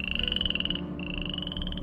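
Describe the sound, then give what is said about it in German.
A dense chorus of frogs croaking and trilling continuously, with a high, steady pulsing call over lower throaty croaks, briefly dipping near the middle before resuming. No voices. “Und jetzt? Frösche?”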